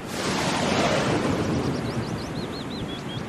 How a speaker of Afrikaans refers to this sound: Die wind loei en dit reën hard. Die brande slaan teen die rotse in die onstuimige see.